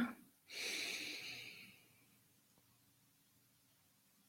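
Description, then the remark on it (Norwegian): A single long, deep inhale, airy, during a guided relaxation breathing exercise, swelling quickly and then slowly tapering off over about two seconds, followed by near silence and a faint click at the end. “Så trekker du et dypt pust inn, sånn som du kan gjøre det.”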